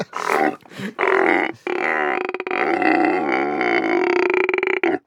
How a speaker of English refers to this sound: And camels are the nastiest animals. Camels just have big, gigantic, snotty mouths. Sounds like and it. They, they smell exactly like they sound. that is a terrifying sound, actually.